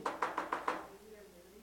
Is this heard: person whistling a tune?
no